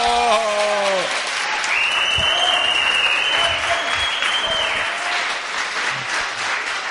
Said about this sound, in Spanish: Queremos brindarle otro aplauso que lo hicimos despertarse temprano y quedarse hasta tarde porque le da sueño al señor Mirko Macari. ¡Bravo!